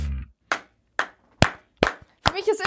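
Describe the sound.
Five sharp hand claps land at a slow, steady pace, each crisp and fairly loud, before a voice starts talking at the very end.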